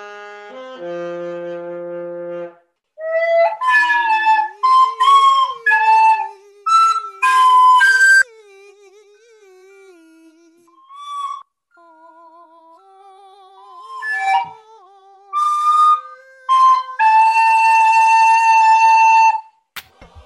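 Two parts play a slow, lilting tune together, close and clear, bright sustained notes that bend and slide, over a lower, wavering, howl-like line. No one speaks.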